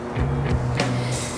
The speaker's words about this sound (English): And that buzzing in the background that you can hear is the Moses Saunders Dam, which was built in 1958, joint project between the two countries, and generates colossal amounts of power 850 megawatts goes to both sides, the US and Canada.